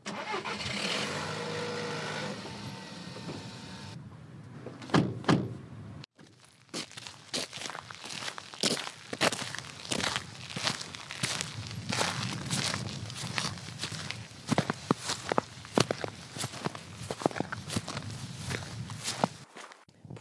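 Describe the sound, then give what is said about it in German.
Steady footsteps crunch along outdoors at a walking pace on the walk from a car park to the tidal flats at Helmsand, after a car engine starts and idles briefly at the beginning. “das war jetzt ein ganz schöner Fußweg von, äh, vom Parkplatz hierher nach Helmsand.”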